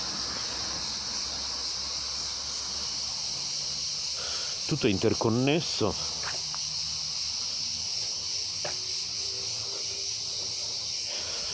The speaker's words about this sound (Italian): Le cicale che sentiamo noi così vicine in questo istante, noi stessi siamo interconnessi con, con le cicale e allo stesso tempo con le automobili che sentiamo correre intorno a noi in questo momento.